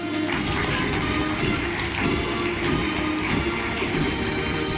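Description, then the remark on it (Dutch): Steady, dense applause from a large crowd for minister Wopke Hoekstra, a continuous hiss of many overlapping claps that holds at an even, fairly loud level throughout, with no voices. “Een heel warm applaus voor onze minister Wopke Hoekstra.”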